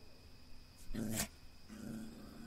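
A dog growls low in two rumbling bursts, a short rougher one followed by a longer, steadier growl, baring its teeth toward the sea at night. The sound is fairly quiet, with no talking.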